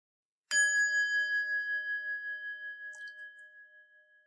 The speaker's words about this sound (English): The bell rings.